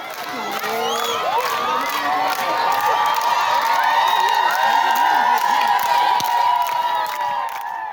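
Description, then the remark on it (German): A large crowd in Gitega, Burundi, cheers loudly and continuously as new bishop Bonaventure Nahimana comes into his diocese, with high ululating voices, shouts and whoops rising over a dense roar of many people for the whole stretch. “So hört sich das an, wenn ein neuer Bischof in seine Diözese kommt.”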